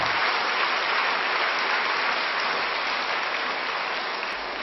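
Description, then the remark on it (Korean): An audience applauds to bless and celebrate the 7th anniversary of Incheon Onnuri Church, in a dense, steady wash of many hands clapping together, loud and sustained throughout with no pauses and no voices over it. “아, 그래서 함께 우리 가서 축하하지 못하지만 우리 박수로 인천원들이 화이팅 하면서 한번 축복하기를 원합니다.”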